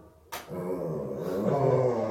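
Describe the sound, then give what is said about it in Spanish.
A dog lets out a long, drawn-out howl, imitating the sound of loudspeakers passing by, starting abruptly after a brief quiet moment and swelling and wavering in pitch as it goes on, with no one talking. “Es que cada vez que pasan los de los altavoces, ella aúlla para imitarlo.”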